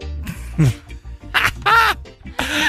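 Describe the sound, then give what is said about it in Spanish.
A person voices several harsh, nasal squawks in quick bursts, mimicking a parrot, loud, with brief gaps between the raspy calls. “¿Qué es lo que más repiten los loros?”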